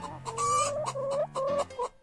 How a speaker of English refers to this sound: Now, if you've never seen this particular game of chance played, it works like regular bingo, except instead of drawing numbers, there's a chicken that walks around on a number covered board until inevitably nature calls